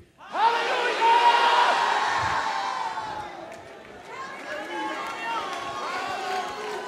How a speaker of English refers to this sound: We're going to throw our hands up, throw our heads back, and we're going to shout with all of our might. Hallelujah.